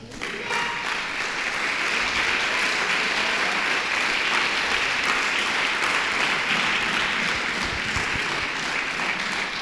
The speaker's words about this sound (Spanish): Por favor, dale un aplauso al Señor.